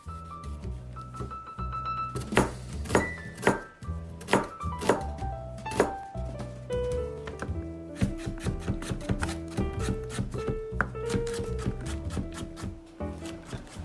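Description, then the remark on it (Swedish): A knife chops peeled onion and carrot into pieces on a cutting board in an uneven run of sharp thuds, with a soft tonal hum in the background and no voices. “Skala lök och morot, skär i bitar.”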